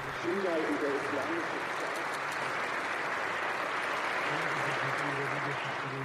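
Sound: applause in parliament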